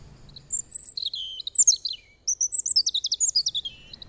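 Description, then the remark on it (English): A robin sings clear, high warbling phrases in quick bursts, a short pause between them, then a fast run of rhythmic chirpy notes, fairly loud with no voices. “One of the best examples begins with a robin.”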